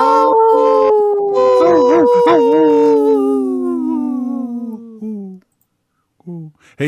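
A wolf lets out one long, loud howl that slowly glides downward in pitch for several seconds, followed by a couple of brief, higher yips after a short pause.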